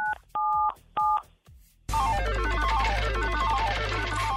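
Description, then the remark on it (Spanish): Three short two-tone telephone keypad beeps in quick succession as a caller presses 977 on the phone to spin a radio station's prize roulette, followed by a loud, busy electronic jingle with cascading descending notes over a steady low hum. “Oye, entonces presiona en tu teléfono el 977 para que gire la ruleta.”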